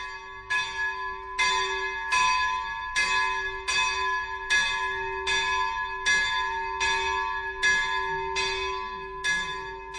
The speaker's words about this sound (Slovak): Zvonenie zvona v kostolíku na Kremnickej kalvárii dáva takú symbolickú bodku za dnešným putnickým víkendom.